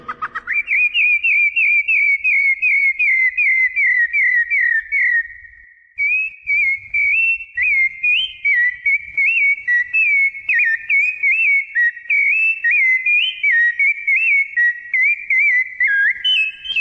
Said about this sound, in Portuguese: Aí está o maravilhoso canto do sabiá laranjeira, pássaro símbolo da primavera e por extensão do Brasil